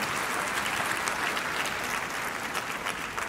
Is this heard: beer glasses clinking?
no